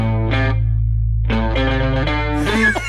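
A short, bright electric guitar jingle drenched in effects, with chorus and distortion, playing a few quick melodic phrases separated by a brief pause, loud; the sound identity commissioned by the city of Ghent, Belgium.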